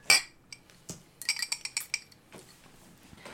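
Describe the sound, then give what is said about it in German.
Two people's glasses clink together in a toast: a bright ring at the start, then a quick cluster of several lighter clinks and chimes, clear with no talking. “Beide Prost. trinken.”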